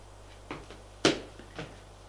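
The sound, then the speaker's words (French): A woman opens a door off a large corridor into a Louis-Philippe sitting room: a light click, a sharp wooden clunk, then a softer knock as it settles, with no voices. “et elle ouvre une porte.”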